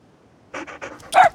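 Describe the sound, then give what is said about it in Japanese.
A dog pants in quick, breathy bursts as it dashes out of its kennel in a yard, a few rapid huffs after a quiet start, ending in a louder, sharper breath. No one speaks. “庭の犬小屋から犬が飛び出す”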